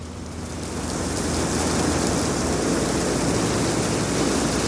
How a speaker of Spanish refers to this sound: Está lloviendo de verdad. Está un huracán, cabrón.